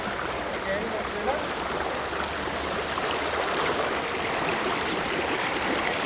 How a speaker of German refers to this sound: Und jetzt hören wir wirklich, jetzt sind wir fast im Wasserwirbel drin. Das ist jetzt so ein kleiner Tempel. Ich kann wirklich in dieses Geräusch hineingehen.